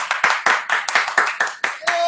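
Loud audience applause welcoming an interviewed guest, with sharp, evenly spaced claps, about four per second, keeping a steady rhythm for two seconds, with no talking over it.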